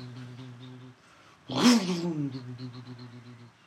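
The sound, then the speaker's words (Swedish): A person imitates a Mustang car engine idling after a cold start with a low, steady droning hum. After a brief pause comes a loud revving burst that winds down into a rumbling idle. “Den står så här på kallstart så här.”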